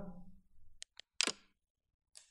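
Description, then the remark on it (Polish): A smartphone screen lock click: a few short, sharp clicks, one louder and slightly longer, with a faint last tick after a pause. “Odblokuj telefon, proszę. Zablokuj chyba, bo zablokowanie nie daje dźwięku.”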